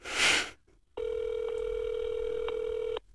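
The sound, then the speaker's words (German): A short rustle, then a steady, clear ringback tone from a handheld mobile phone placing a call sounds for about two seconds at moderate volume before cutting off; no voices. “Ja, aber es tut es doch immer erstmal noch dreimal tun und dann Mailbox.”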